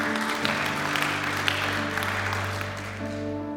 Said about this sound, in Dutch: Amen. Amen. Geef God een groot applaus.